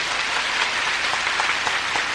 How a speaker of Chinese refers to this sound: 我双手一比，停一下，就是要鼓掌的。